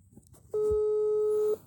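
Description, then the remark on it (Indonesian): A single steady electronic telephone ringing tone of an outgoing phone call sounds loudly for about a second, a clean unbroken beep over faint background noise, with no one talking. “Gila langsung aja gue telepon nih”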